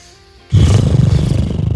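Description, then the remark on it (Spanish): After a brief hush, a person does the calming 'horse breath' breathing exercise, blowing out a loud, sustained lip-trill exhale, a low, rapidly fluttering buzz like a horse snorting through its lips, lasting just over a second. “A ver, entonces me calmo, respiro, la respiración del caballo es”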